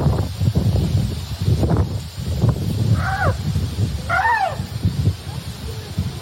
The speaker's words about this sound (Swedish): Det är en elefant. De är roliga. Kolla på det här nu då.